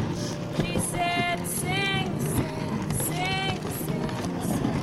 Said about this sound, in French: Donc le bruit que vous entendez là derrière moi, c'est bien le bruit d'un traîneau quand un renne avance. Donc comme ça, vous avez une petite idée de ce que ressent le Père Noël lors de sa tournée.